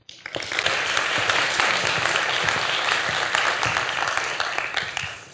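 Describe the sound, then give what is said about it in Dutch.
Warm audience applause welcoming the speaker Amade Mesharik at an evening talk rises quickly and holds steady for several seconds, a dense, even wash of many hands clapping, fairly loud, with no voices, before easing off at the end. “Een, eh, een hartelijk applaus, een warm welkom voor Amade Mesharik.”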